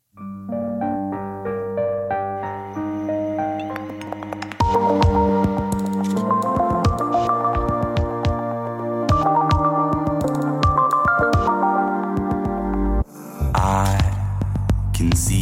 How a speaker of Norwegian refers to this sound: Jeg tenkte da vi skulle høre litt på en låt som kom i 2016.